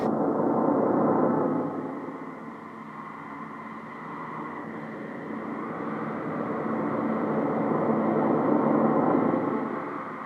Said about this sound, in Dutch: Wat we wel hebben gemerkt is dat dit gebouw gewoon een soort van standaard geluid heeft die er gewoon altijd is. Een soort motorisch iets. Er is nooit een volledige stilte, wat op zich ook wel interessant is.